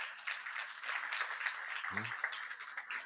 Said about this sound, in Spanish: Así que un aplauso a toda esa gente que se atrevió.